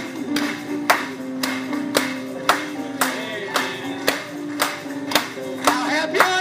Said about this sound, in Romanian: Aplaudați-o lui în dimineața aceasta